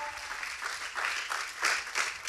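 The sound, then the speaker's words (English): A crowd claps and cheers loudly and steadily for what God did a couple of weeks ago, with bursts of louder whooping rising above the dense applause for a few seconds. “get real loud for what God did a couple weeks ago?”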